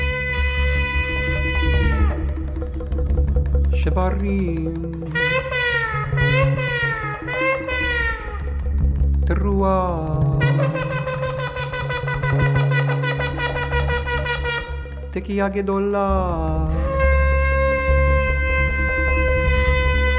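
A shofar ram's horn blown in long, loud, buzzy blasts that bend and slide in pitch, with a stretch of quick wavering calls, over a steady low drone and no talking.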